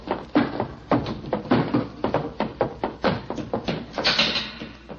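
A theater exit door is rattled and banged over and over, a quick, uneven series of wooden knocks and clunks, fairly loud, with no voices.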